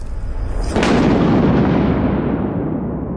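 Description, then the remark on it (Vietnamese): A sudden, loud crack of thunder bursts out of a steady rushing background, then rolls into a deep rumble that slowly fades over the next few seconds. No voices. “thêm một tiếng sét khô gốc nữa chát chú vang lên một luồng điện sáng lòa”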